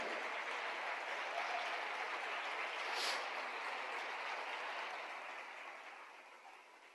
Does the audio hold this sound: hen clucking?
no